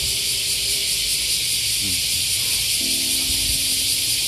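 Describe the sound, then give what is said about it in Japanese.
A dense, continuous sizzling drone of cicadas, now mostly large brown cicadas (aburazemi), calling to attract mates, fills the whole recording, loud and steady without pause, with faint low background noises from the surroundings underneath. “今もこのセミの鳴き声っていうのが入ってると思うんですけどずっとこの音ですね、うん、昔はねこのいろんなセミの鳴き声がつくつく帽子であったり、ね、ミンミンゼミであったりっていうのが、ね、入り混じってたように思うんですけど今はやっぱりアブラゼミとかね、まクバゼミみたいな風になってきてますね。”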